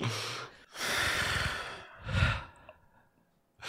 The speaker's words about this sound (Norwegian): … puster tungt.